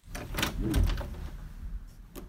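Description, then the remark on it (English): A door is pulled open with a short scraping rattle and a few clicks and knocks, moderately loud, with no one speaking. “Now take off that stupid apron because I'm opening the door.”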